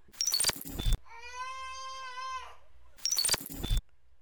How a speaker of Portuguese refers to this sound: É, eu, eu ouvi o miado, ele tava escondido nos barris de novo.